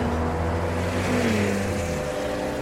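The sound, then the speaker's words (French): Road traffic with cars and trucks rolls past on a long, straight road through the desert, a steady, fairly loud engine drone and tire rumble whose pitch shifts slightly midway, continuous throughout with no voices. “Et devant vous, la route. Rien que la route. Droite et interminable. Avec des camions et des voitures. Beaucoup voitures.”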